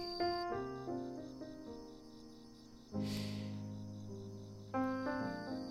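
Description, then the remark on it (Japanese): Bell crickets chirp in a steady, pulsing trill, rapid repeated high notes that continue throughout, softly layered beneath gentle melodic music with sustained tones and occasional swells. “この背景にあるスズムシ”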